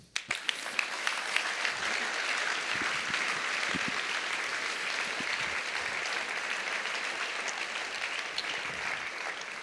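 An audience applauds steadily for nearly ten seconds, a dense, even wash of clapping that starts abruptly and holds at a consistent, moderate loudness without voices.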